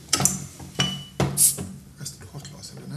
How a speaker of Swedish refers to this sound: Ja, nu har jag hittat öppnaren. Då öppnar jag flaskan.